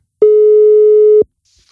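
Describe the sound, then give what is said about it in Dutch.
A single steady ringback tone on an outgoing phone call to a friend: one flat, mid-pitched electronic beep lasting about a second, loud and alone, then silence. “Zal ik hem gewoon eens bellen?”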